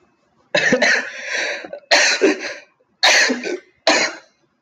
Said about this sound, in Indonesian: Anjir, batuk sorry.